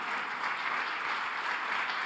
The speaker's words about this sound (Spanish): Vamos, dale el aplauso fuerte.